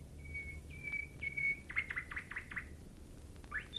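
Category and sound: bird, nightingale singing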